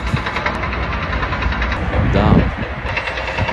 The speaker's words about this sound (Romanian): și doar zgomotul uh, mașinăriilor.